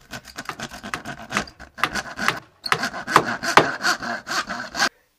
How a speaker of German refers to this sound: Die Straße ist gesperrt. Die Bauarbeiter verlegen neue Rohre.